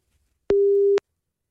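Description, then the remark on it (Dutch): A single steady electronic telephone busy tone from a dropped phone connection made through the internet app Lucy in the Netherlands, sounding for about half a second with sharp clicks at its start and end, loud and clear with silence around it. “De internet-app, die heet Lucy, die wordt gebruikt voor die verbindingen, die hapert dus ook nogal eens daardoor.”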